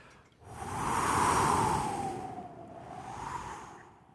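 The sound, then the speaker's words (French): Wind blows in a steady rushing roar that swells in two long gusts, with a hollow whistling tone rising and falling over the noise. No voices are heard. “Comment ça euh, Le vent? Oui!”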